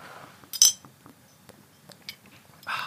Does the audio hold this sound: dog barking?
no